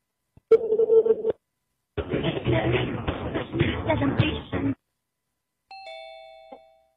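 A phone number is dialed: a steady electronic tone, then a stretch of noisy rustling with some talk, and finally a short run of layered keypad beeps at a moderate level.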